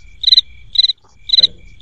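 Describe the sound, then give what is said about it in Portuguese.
A cricket sound effect chirps in steady, evenly spaced bursts, each a quick pulsing trill, loud over a faint low background hum, with no voices. “Coloca a musiquinha de grilo aí, editor.”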